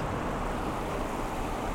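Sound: sea waves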